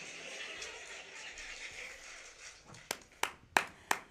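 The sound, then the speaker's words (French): Soft, dense applause from a crowd welcoming the next guest on the show Télé Chatterback fades out, then four sharp individual claps ring out at an unhurried, steady pace. No one speaks. “Voilà, et sans transition, je vous demande de faire un tonnerre d'applaudissements à ma prochaine invitée,”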